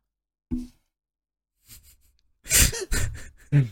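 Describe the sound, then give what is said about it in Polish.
A person yawns: a brief breathy intake, a pause, then a long, loud, drawn-out voiced yawn that trails into a low sighing groan. No words are spoken. “Nie rozśmieszaj mnie jak ziewam.”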